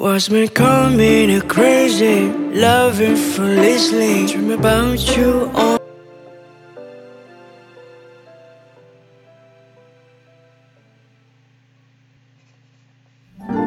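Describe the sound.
A pop song with a sung vocal over warm accompaniment for several seconds, then the voice stops and soft sustained instrumental tones fade slowly toward silence before a brief sound returns at the end.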